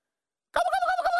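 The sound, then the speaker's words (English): After a half-second of silence, a loud wild turkey gobble bursts out, a rapid warbling rattle with strong harmonic tones that continues to the end; a bunch of wild turkeys running out of the woods in an arboretum. “A bunch of wild turkeys, right? They come running out of the woods.”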